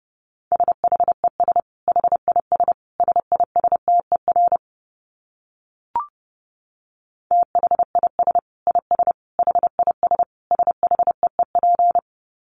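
Rapid Morse code at about 30 words per minute: a single steady mid-pitched tone keyed into quick dits and dahs, two long runs separated by a pause with a brief click, no voices.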